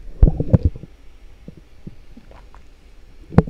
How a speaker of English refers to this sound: just want to take a sip of this.